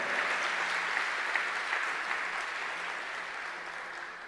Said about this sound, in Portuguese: Quer aplaudir? Pode até aplaudir o Senhor, que eu estou aqui para provocar a tua fé.